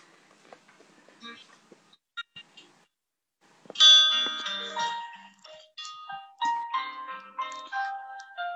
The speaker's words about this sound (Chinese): 我这边听他音乐，只能听到一个音符一个音符的。 不行吗？ 音乐声特别特别小，你的说话声音还可以。